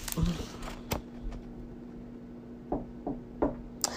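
Several sharp knocks on a door, a couple early and then a quicker cluster of three or four near the end, over a low steady hum.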